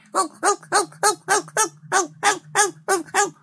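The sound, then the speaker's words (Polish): An actor imitates a dog barking while practising backstage or in a rehearsal room for a role as a dog: about eleven short, voiced barks in a quick, steady rhythm, fairly loud, with no other talking. “Jak ćwiczę za, za kulisami czy w sali prób, no po prostu sobie szczekam tak?”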